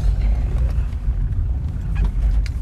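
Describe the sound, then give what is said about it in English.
A car drives over a sidewalk curb, heard from inside as a steady, loud low engine and road rumble with a few soft knocks and thumps, no talking. “that was a sidewalk you just went over, but okay.”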